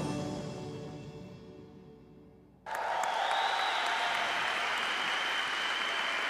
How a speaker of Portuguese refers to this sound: Vamos aplaudi-lo com honra